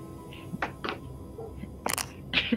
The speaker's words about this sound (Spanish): el, anciano, cierra la puerta de la cava y al parecer se va hacia abajo